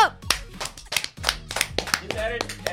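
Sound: clapping hands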